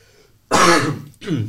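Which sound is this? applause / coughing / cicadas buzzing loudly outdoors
coughing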